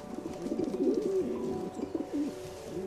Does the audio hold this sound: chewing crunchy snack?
no